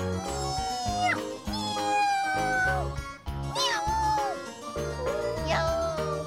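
A cat, just set down on the ground, meows three times as it starts catching mice, each a drawn-out, wavering cry that rises and bends in pitch, over a steady, rhythmic low backing that plays throughout.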